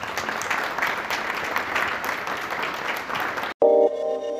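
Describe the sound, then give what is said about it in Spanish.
An audience applauds steadily for about three and a half seconds, a dense crackle of clapping, then it cuts off abruptly and a brief electronic tone chimes in. “Bueno, pues muchísimas gracias, eso sería todo y el aplauso es para ustedes.”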